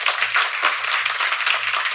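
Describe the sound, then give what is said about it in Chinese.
An audience breaks into steady applause, a dense, even wash of many hands clapping with no voices on top, holding at a fairly loud level throughout. “给掌声鼓励一下大家。”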